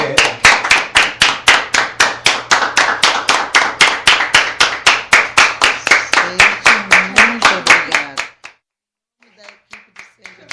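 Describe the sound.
Loud, steady rhythmic clapping in unison by people standing to applaud at the close of a program, with voices murmuring underneath; it stops abruptly after about eight seconds, followed by a short pause and a few scattered claps.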